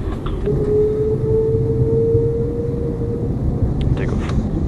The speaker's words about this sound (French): Piste 33, lignez-vous et autorisez décollage. Vent 350 degrés, 16,9. Je m'aligne, piste 33, et au décollage French Air Force 4099.